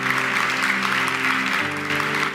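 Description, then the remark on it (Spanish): A church audience claps steadily for God in a dense, continuous wash of applause, with a sustained organ-like chord underneath that shifts to a lower note partway through. “Dale un aplauso a Dios si lo crees de verdad.”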